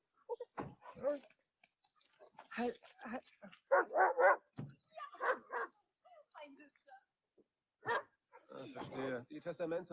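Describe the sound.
A large German shepherd dog barks in several loud bursts, some clustered in quick doubles and others spaced apart, with voices talking in between.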